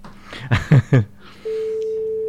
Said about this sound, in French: Deuxième sonnerie.